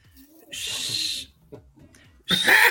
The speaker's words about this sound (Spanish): Chiflido confirmante, chiflido confirmante.